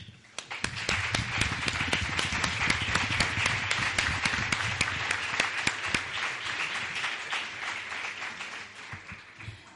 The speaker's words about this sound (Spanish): Para todos ellos y en especial para las supernenas, si me lo permitís, pedimos un fuerte aplauso.